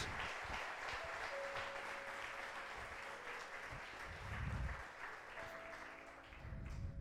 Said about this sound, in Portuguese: Glória a Deus. Aplauda ao Senhor mais uma vez em nome de Jesus. Ele é Deus.